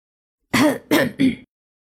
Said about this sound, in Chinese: 林老爷子咳嗽一声说